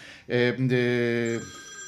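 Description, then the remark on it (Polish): A phone rings during a live on-air broadcast with a loud, bright electronic ringtone: a short burst, a brief break, then a longer steady tone that cuts off, with no talking over it. “A kto to do mnie dzwoni teraz?”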